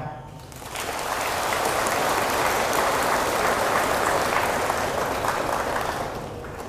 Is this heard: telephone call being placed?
no